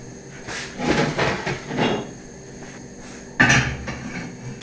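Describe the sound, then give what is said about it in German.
Metal kitchen clatter as a pot of polenta is set down on a gas stove, a cluster of clanks early on and a sharper knock near the end, over a steady low hum. “Also der Topf mit Polenta steht jetzt auf dem Herd.”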